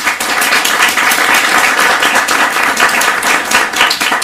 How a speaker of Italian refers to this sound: abbiamo qui con noi Lorenzo Sartori, un bel applauso.